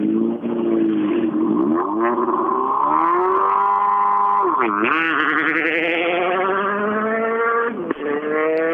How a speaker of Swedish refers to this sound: Att rallybilar kan låta så olika Ja, det är riktigt häftigt det här. Eh, riktigt skön bil.